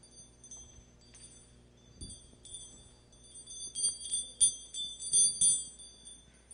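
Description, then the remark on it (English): Light metallic jingling of two keys meant to go on a Christmas tree being shaken, starting faint and growing into several brighter, ringing clinks toward the end, with no voices. “Keys.”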